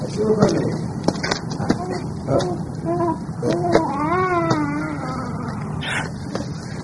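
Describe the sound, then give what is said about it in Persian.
A baby cries in wavering, drawn-out wails that rise and fall several times over a noisy background with scattered clicks and knocks. “بله شنیدم مثل که صدای گریه بچه هست ببین کجاست”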